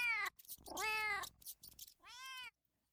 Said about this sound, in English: As soon as the marmalade cat saw the cozy thatched roof, she made her home where the gray mouse with a long pink tail had lived before.